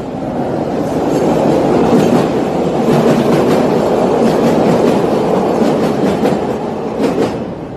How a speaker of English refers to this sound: hold on, this train going by.